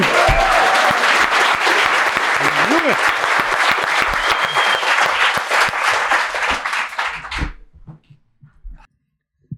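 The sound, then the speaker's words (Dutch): Loud, sustained audience applause for the next roaster at a roast show, with dense clapping and a few whoops, holding steady for about seven seconds before quickly dying away into near silence. “Nee, mag ik een eh, keihard applaus voor de volgende rooster?”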